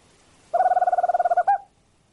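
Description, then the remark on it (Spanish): A tropical screech owl (alilicucú) gives a single rapid, even trill of about a dozen quick hooting notes, followed by one separate final note. The call is clear, with no talking. “Este me hace acordar más a un caburé, ¿no? Con un canto profundo.”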